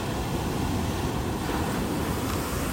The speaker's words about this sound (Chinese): 好漂亮，那个海浪打上来，那个雾。雾雨啊，